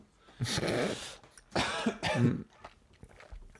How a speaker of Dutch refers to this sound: Is het zo? Nou ja, zo'n droog, eh, droog kuchje. Een droge eh, kuch?